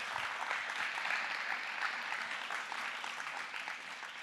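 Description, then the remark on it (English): An audience claps steadily for several seconds, a dense, sustained wash of applause that stays fairly even in loudness throughout. “can we please give it up for Isabel again?”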